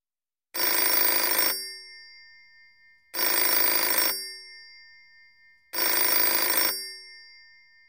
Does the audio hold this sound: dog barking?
no